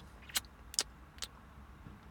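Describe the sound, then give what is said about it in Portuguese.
A car key turns in the ignition to switch off an engine that had been left running, making a few sharp metallic clicks and jingles spaced across the moment, over a low, quiet rumble inside a car parked by a patch of trees in the middle of a city. “E tive que dar aqui chave no carro porque percebi que estava ligado.”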